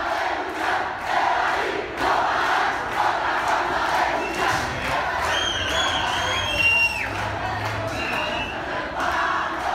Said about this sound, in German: was ihr im Hintergrund hört, bedeutet Fahren ohne Ticket eine andere Art zu kämpfen. Das ist genau das, was die Studierenden damals in der U-Bahn gerufen haben.